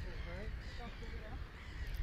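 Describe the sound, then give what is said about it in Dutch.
Several birds call at once, with harsh cawing notes repeating against a steady windy rumble; the calls overlap and a person talks over them. It is around nine in the evening and windy, with the sun setting and the sky full of birds. “Ik hoop dat jullie de vogels kunnen horen.”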